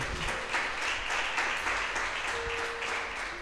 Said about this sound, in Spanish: ¿Cuándo pueden aplaudir y darle gloria a Dios? Sí.